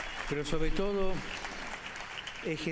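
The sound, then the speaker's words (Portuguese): A large crowd applauds steadily in the background, a dense continuous patter of clapping given in thanks to bishops, priests, catechists and youth leaders, while a man's voice speaks over it in short phrases. “Agradecemos-lhes por isso, com uma grande salva de palmas, mas agradeçamos a todos eles e o façamos com um forte aplauso.”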